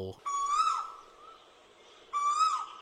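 A coucal calls twice, each a short, rich hooting note, separated by a pause of about a second and a half, sounding close and clear over a quiet background.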